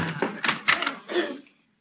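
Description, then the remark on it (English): A quick series of sharp knocks on a door in The Jack Benny Program radio broadcast of April 22, 1951, about five raps in an uneven rhythm, moderately loud, then fading into silence. “There's someone at the door.”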